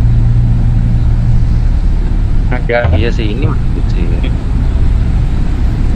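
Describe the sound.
A steady, loud low rumble of a car and street traffic on a street in Honolulu fills the whole stretch, with a short bit of conversation rising over it midway.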